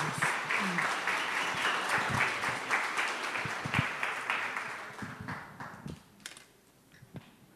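Audience applause: dense, steady clapping from many hands that holds for several seconds, then thins out into scattered individual claps as it fades.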